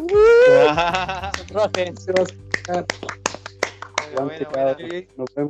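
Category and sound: crowd, round of applause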